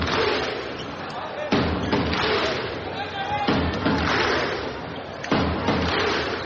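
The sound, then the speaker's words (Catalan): A large crowd, everyone standing, performs a slow Icelandic Viking thunderclap: three booming unison claps about two seconds apart, each cutting through a steady roar of crowd noise. “Toc islandès.”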